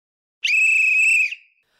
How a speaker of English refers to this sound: Well, speaking about football, I think that was the sound of the final whistle.